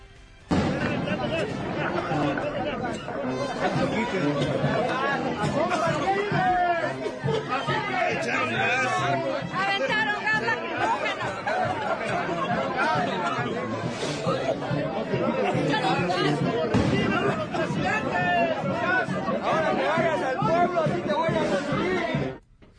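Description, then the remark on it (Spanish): A large crowd of more than 300 protesting municipal mayors from different political parties clamors at the gate of the National Palace before dawn, many voices shouting and talking over one another in a dense, loud, unbroken roar that lasts the whole time. “Estas son las voces de más de 300 presidentes municipales de todo el país y de diferentes partidos políticos, excepto Morena, obviamente, que se plantaron en la puerta mariana de Palacio Nacional esta madrugada.”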